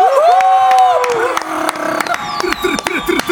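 A studio audience claps and cheers for a newly released song, with a loud whooping shout at the start and a dense patter of applause that continues throughout, mixed with scattered voices.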